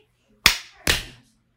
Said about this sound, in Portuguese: E agora as palmas. Um, dois, três e.